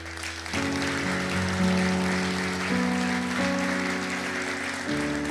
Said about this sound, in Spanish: Quiero pedir a las mujeres que se sienten y ahora a los varones que se pongan de pie. Y ustedes primeramente, el primer aplauso es para para las mujeres.